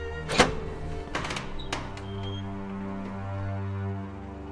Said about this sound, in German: Die Tür geht erneut auf.